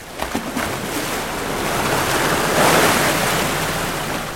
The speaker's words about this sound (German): Zu viel Wind heute für Touristenboote. Der Hafen liegt verlassen, Atlantikschwellen überspült den kleinen Anleger.